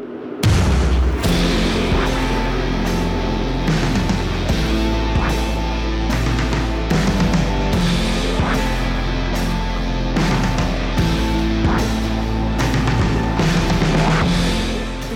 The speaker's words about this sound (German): Ihr hört jetzt mal ein paar Momente ab dem Einstieg von Alex Schlagzeugaufnahme.